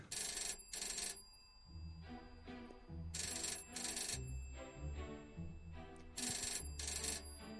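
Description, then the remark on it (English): A telephone in a house rings loudly in a classic double-ring pattern, three pairs of bright trilling bursts spaced evenly apart, with no one speaking. “Alice, phone.”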